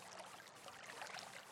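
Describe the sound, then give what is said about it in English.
Running water, played as sensory therapy, flows in a steady, continuous hiss with soft bubbling texture, fairly quiet and even throughout, with no voices or other sounds. “It, today, it's the sound of running water.”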